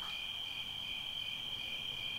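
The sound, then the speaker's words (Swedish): A thin, steady, high-pitched whine of billions of mosquito wings hums continuously and fairly quietly over a pond in inland Norrland, Sweden, in August, heard from a small boat, in an otherwise still, silent setting, with no voices. “Förutom det svaga surret från miljarder små tunna myggvingar är allting knäpptyst.”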